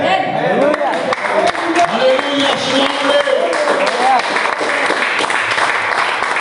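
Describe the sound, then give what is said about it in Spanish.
An audience applauds loudly and steadily during a sermon on baptism, dense rapid clapping that holds strong throughout, with voices calling and cheering over the clapping. “Ninguno de los aplausos debe ser para el predicador, sino que todo aplauso debe ser para el Rey de Reyes y Señor de los Señores.”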